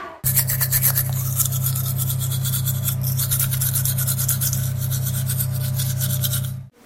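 A toothbrush scrubs steadily for several seconds, a low motor-like buzz running under bristly rasping strokes, loud and continuous before cutting off abruptly.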